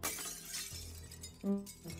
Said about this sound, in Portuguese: ou se você perceber que as coisas estão quebrando muito, a toda hora, ah, vou lavar a louça, quebrou um copo.